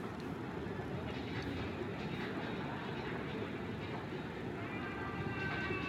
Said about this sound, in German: Ich löse hiermit. Das sind ähm, Rolltreppen im Stedeliken,